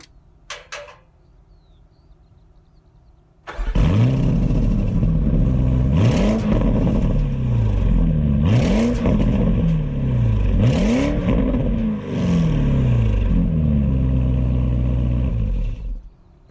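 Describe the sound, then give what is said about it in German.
A Porsche Cayenne GTS Coupé engine starts with a burst and then revs loudly several times, rising and falling in pitch in repeated swells over a deep idle rumble, with no talking. “oder das wichtigste hörbare und für unseren Podcast so wichtige ähm, Teil dieses Pakets äh, kann ich dir kurz mal abspielen hier.”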